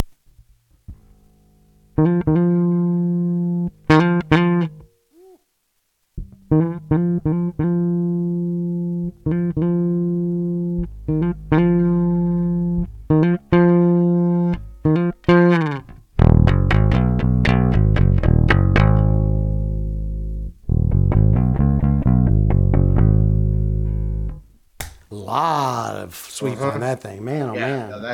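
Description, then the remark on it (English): A bass guitar plays repeated notes and short riffs through an amp head, fairly loud, its tone turning brighter and then duller as the treble knob is adjusted. A burst of noise ends it. “Let's try the treble. I'm going to skip the ba- the middle for a second because it's got a, a frequency adjustment.”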